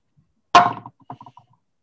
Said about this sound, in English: That is a very satisfying kathunk in the dice tray you got there. It is.